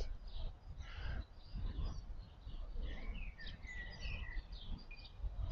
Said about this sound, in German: Ob du nun etwas Wind auf deiner Haut spüren willst oder einfach nur mal rätseln willst, welcher Vogel hier gerade im Hintergrund singt.